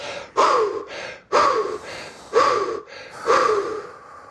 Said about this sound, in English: it's important, … says, to take these deep recovery breaths so you don't black out